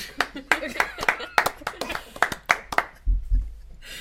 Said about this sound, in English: He likes to clap. That's, that's basically what you have to know about him.